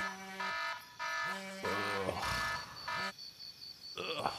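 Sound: alarm going off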